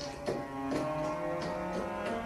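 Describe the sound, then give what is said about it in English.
A sampled cello, played without using the control that sets its vibrato, plays a short phrase of sustained notes with no vibrato, each pitch held dead steady and sounding flat and lifeless as it steps through about five notes, with no voices. “But on a lot of instruments, like the cello here, it actually controls the vibrato.”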